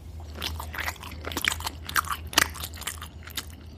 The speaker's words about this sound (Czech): A jak se vracela, najednou uslyšela zvláštní zvuky z ledničky. Přiložila ucho, uslyšela mlaskání.